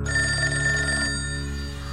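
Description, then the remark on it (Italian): An old-style telephone bell, the phone of Giorgia Padoan's father, rings loudly with a call from a stranger, a rapid metallic trill for about a second before cutting off and leaving a fading hum. No voices are heard. “Accade che a pochi giorni dalla morte della studentessa, al telefono del padre chiama uno sconosciuto.”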